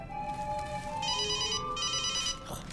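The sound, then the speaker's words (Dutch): A mobile phone ringtone plays a bright, repeating electronic melody of high-pitched tones in pulsing bursts, steady and fairly loud, with no talking over it. “Nou, die bel ik later wel terug.”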